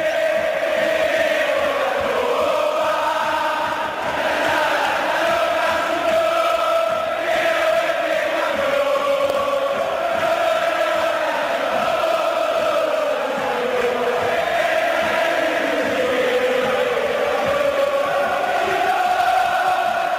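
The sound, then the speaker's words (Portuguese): A large crowd of São Lourenço (San Lorenzo) football fans sings a stadium chant in unison during the 2014 winning campaign, a loud, continuous melodic roar of many voices that carries steadily without a break. “qual é a música que embalou a campanha vitoriosa. Como foi em 2014, por exemplo, com a torcida do São Lourenço.”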